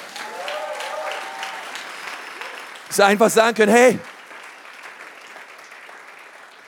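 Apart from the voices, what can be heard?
audience applause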